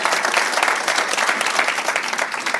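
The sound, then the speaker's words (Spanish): A church audience bursts into sustained applause for the Lord, dense overlapping claps forming a steady, loud roar that holds for a few seconds with no one speaking over it. “denle ese aplauso al Señor para honra y gloria.”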